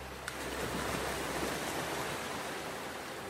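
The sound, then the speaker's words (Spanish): A steady, broad wash of surf rolling in, filling the whole span with continuous hissing roar at moderate level, with no voices present. “Otros, más afortunados, despiertan con el sonido del mar,”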